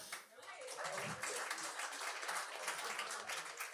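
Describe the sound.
A comedy club crowd bursts into sustained applause as the Québécois in the audience identify themselves, a dense wash of clapping that holds steady for a few seconds, with a few voices cheering faintly within it.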